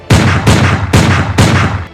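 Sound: gunfire sound effect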